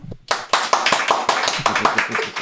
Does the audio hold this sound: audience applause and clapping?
yes